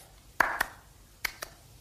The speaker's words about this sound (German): Berühmter Witz von Paul Watzlawick, genialer Psychotherapeut geht ein Mann durch die Straße und klatscht immer zweimal in die Hände.